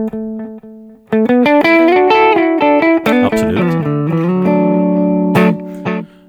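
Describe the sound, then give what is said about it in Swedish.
A distorted electric guitar plays a loud run of sustained notes through a modulated 500-millisecond delay set to three or four repeats. Each note is trailed by wavering, slightly pitch-bent repeats with little bass or treble, played hard and then looser. A brief spoken word comes near the start. “Och det var 500 millisekunder. Och ni hör att det är lite modulation på.”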